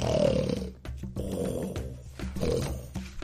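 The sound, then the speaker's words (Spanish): A hippopotamus snoring: deep, loud, rumbling snores with a growling rasp, heard in a few long drawn-out breaths with no talking. “Y dice la selva, silencio, que no se despierte, se avisan unos a otros, aunque hay noches que ronca. Y cuando el hipopótamo ronca...”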